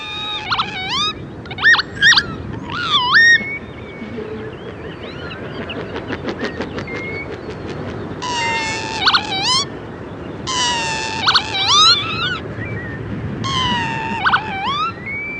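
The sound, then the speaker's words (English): A lapwing's courtship display song, a more complicated version of the peewit call with other calls mixed in: bursts of wheezy, sweeping pee-wit calls, then a rapid throbbing, pulsing passage midway, followed by more clear, repeated calls over a steady outdoor background hiss. “A slightly more complicated version of the peewit call, and lots of other calls thrown in too.”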